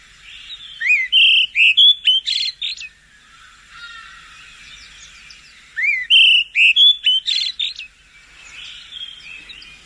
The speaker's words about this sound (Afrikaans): Hulle sing gewoonlik baie mooi en klink so. Die volgende roep is ons bekende olyfluister.